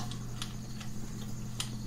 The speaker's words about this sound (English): It's made of metal. And these are the risers. Okay, so now I'm taking my second riser unscrewing